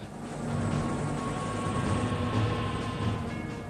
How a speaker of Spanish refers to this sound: En la tarde del 3 de octubre, helicópteros Black Hawk, como estos, salen en misión para secuestrar a dos de los principales colaboradores del jefe militar local.